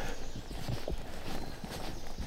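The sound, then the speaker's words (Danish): Cattle hooves thud and clop on the ground in an irregular walking rhythm, several cows moving over a steady outdoor background. “Der er godt gang i køerne, ikke?”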